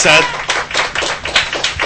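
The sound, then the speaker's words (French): A crowd claps in steady applause, many overlapping hand claps forming a dense, sustained patter at fairly loud level with slight swells in intensity. “Bah, vous êtes et c'est vrai peut encore les applaudir, ouais.”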